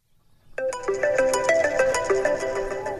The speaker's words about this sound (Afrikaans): Dis weer 'n naamlose oproep.